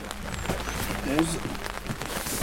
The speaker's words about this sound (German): Es regnet in Strömen.